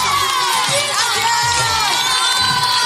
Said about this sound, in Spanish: Aplausos.